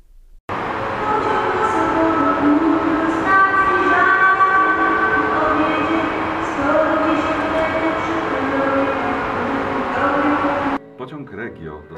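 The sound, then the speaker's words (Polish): Busy railway station ambience at the station in Wrocław, Poland: a steady, loud rumble of trains with tonal, horn-like notes, while voices carry throughout over a public-address announcement of a Regio train to Lubliniec departing from track two at platform one, ending abruptly into a quieter tail. “postanowił zrobić coś podobnego na dworcu kolejowym w Wrocławiu, a tym razem zapowiadał sam pociągi”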